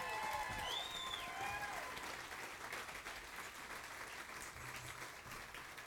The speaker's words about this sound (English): Worship team, a big round of applause.